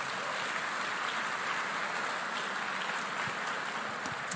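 A large church audience applauds Jesus steadily during a sermon, dense overlapping clapping at an even level for several seconds, with no one speaking over it.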